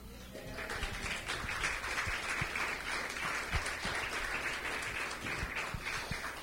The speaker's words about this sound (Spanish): Híjole, di un aplauso al Señor.